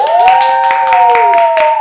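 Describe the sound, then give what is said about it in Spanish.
Loud applause welcoming a guest, with sharp, irregular claps, layered under a steady high whistling or whooping tone that holds throughout the burst. “Pero bueno, estamos en condiciones por favor, pues presentar ya, tenemos en silencio, Súper invitada que inaugura la temporada número 2 del Podi de Escuela de Pie fuerte el aplauso para recibir a”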